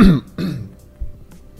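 Two rough coughs in quick succession, loud, followed by a soft low thump and quiet room noise.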